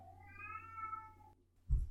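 A single drawn-out cat meow, rising slightly then holding steady for over a second, clear, followed by a short pause and a brief low thump.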